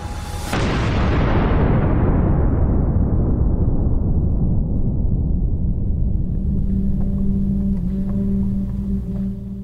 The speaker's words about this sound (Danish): Det er lyden af en atomreaktor, der eksploderer. Og den lyd har på vidt forskellige måder sendt ekoer igennem hele verden lige siden